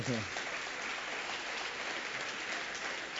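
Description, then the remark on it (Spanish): A church audience breaks into steady, sustained applause during a sermon, a dense wash of many hands clapping that fills the space, with a voice briefly heard at the very start. “Me desgañete, dele un aplauso.”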